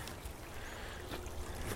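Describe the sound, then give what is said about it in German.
A small trickle of a brook burbles steadily, a continuous gentle wash of water with no voices. “Das ist ein Rinnsal, das nehmen wir jetzt mal mit.”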